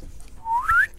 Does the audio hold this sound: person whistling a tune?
yes